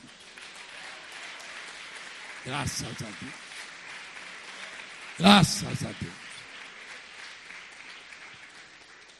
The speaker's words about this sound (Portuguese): Vamos aplaudir o Senhor, né?